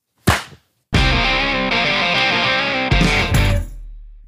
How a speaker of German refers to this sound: Ich weiß nicht, ob es am Ende was bringt, aber wir müssen auf jeden Fall einmal klatschen. Das ist richtig, genau, das ist richtig. Also wir klatschen in drei, zwei, eins.